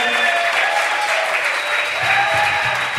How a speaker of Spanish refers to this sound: Aplauso para la gente que estuvo con nosotros hoy